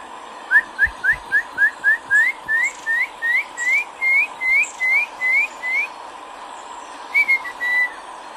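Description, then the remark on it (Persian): A person whistles a bird-like song in a rapid run of about seventeen short rising chirps, then pauses and adds a few more, imitating a nightingale, with a low steady hum behind. “وای چه صدایی شروع کرد به سوت بلبلی”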